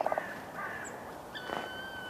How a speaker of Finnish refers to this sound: Tikka. Tikka siellä laulaa